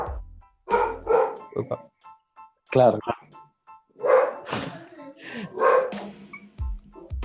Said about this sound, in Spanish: ¿Y ese perro? No, ese perro es mi querida y hermosa Dorma, que está ladrando porque no quiere a mi familia. Solo me quiere a mí y a mis viejos.